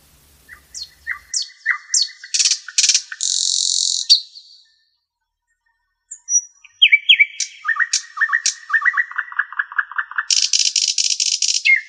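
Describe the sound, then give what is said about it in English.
A bird sings in two lively bursts of quick chirps, buzzy trills and rattling phrases, separated by a short silence, clear with no voices. “Still wouldst thou sing, and I have ears in vain, to thy high requiem become a sod.”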